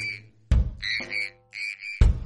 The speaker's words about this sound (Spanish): Dicen que si escuchas un programa de Milanosfera al revés, podrás oír claramente el sonido que produce un grillo al despertarse de la siesta.